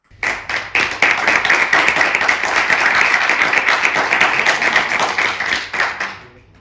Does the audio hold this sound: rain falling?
no